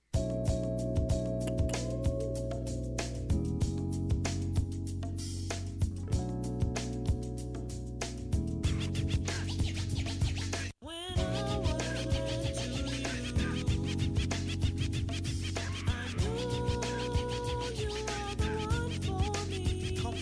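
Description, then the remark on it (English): A loud hip-hop track plays as outro music, continuously with a steady, thumping bass beat and layered samples, cutting out for a split second midway before resuming at full volume. “we're gonna play out on some goddamn …”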